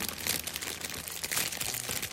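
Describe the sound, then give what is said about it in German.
A chip bag crinkles steadily, a continuous crisp rustling with small bursts of crackle throughout, no voices over it. “der Klassiker, die raschelnde Chips-Tüte.”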